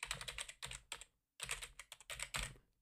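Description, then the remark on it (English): Rapid clicking of computer keys typed in quick bursts, fairly loud, with a short pause midway before the typing resumes: the typing part of Matt Hardy's wrestling entrance theme, played for his match against Tajiri. No voices. “The typing part of Matt's theme.”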